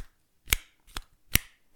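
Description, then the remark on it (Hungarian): A flip phone snapping open and shut four times in quick succession, each a sharp, bright plastic click with a brief rattle, alone with no talking. “Kinyit, becsuk ugyanilyenje van, legmenőbb.”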